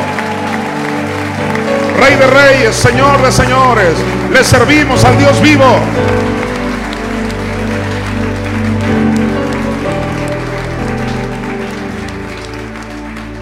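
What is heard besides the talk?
audience applause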